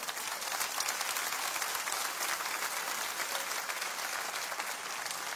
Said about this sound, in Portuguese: Quem tem aqui mais de 40 anos de Igreja Batista do Morumbi, levanta a mão. Olha, olha para essa galera e aplauda essa galera.